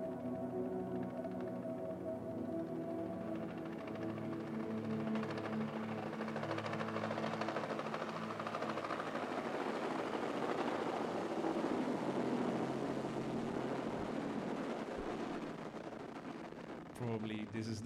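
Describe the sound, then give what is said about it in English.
A helicopter's whirring drone blends into a dense musical backdrop of sustained tones, holding steady and loud for most of the stretch before cutting away abruptly at the very end. “part were you most proud of? The helicopter?”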